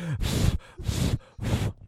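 Three heavy, forceful breaths blown into a microphone by a person getting annoyed, in a steady rhythm, each a loud, rushing puff with a rumbling low end and short pauses between, sounding agitated.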